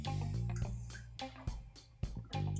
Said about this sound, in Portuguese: Então, eu vou parar para tomar um golinho d'água, tá? Só um segundinho.